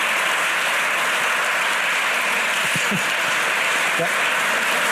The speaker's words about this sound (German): Ganz herzlichen Dank an Sie. Ich denke, der Applaus sagt alles